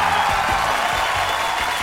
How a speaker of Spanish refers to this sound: Que hoy que prendió el público este, ah, aplauso, pero... mejor que el de Yo Soy.